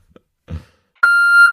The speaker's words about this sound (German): Piep, ich wollte auch nochmal euren AB testen.